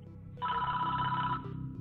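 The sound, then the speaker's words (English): A single telephone ring, the ringback heard while an outgoing call to the CIA connects, lasting about a second, steady and fairly clear over a faint low hum, with no talking. “within minutes of hanging up the phone with Andy, Flaviu makes that call to the CIA”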